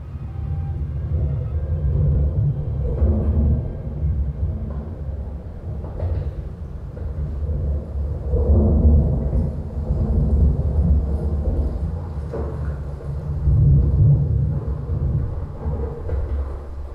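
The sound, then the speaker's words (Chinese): Deep, rolling thunder rumbles on and on, swelling loudly several times before easing back, over a steady wash of rain at the Listening to Rain Pavilion in the Humble Administrator's Garden (Zhuozheng Yuan) on a rainy day. No one speaks. “那在这里再看看拙政园的雨和雷和刚才你看到的有什么差异啊、我们需要忘掉我们刚才感受到的雷雨。”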